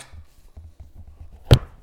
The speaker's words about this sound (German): ich habe halt immer das Mikrofon so hingestellt, so wie ich es jetzt hinstelle, ne, zur Kaffeemaschine hin. Das Problem ist nur, dass jetzt natürlich etwas ein bisschen gedämpft wird.